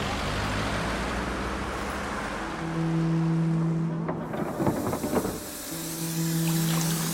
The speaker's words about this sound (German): Es ist nicht das Baby oder der Hund oder die Erinnerungen oder die Geister, die dich wecken. Es sind die Lieferwagen.